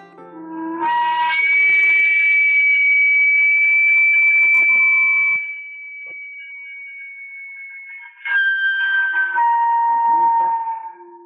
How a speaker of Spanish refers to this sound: Con este silbido, desde muchos años atrás, los camoteros se anuncian.